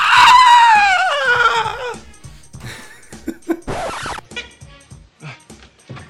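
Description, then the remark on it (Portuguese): A man lets out a loud, high-pitched comedic scream on seeing his mother making out with a man; the scream slides downward in pitch for about two seconds, then quieter scraping and rustling noises follow. “Ai, Aí ele faz um gritinho e.”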